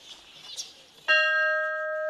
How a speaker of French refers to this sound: on arpente euh, la zone historique du musée Albert euh, Schweitzer et on tombe sur la cloche. Est-ce qu'elle fonctionne encore, cette cloche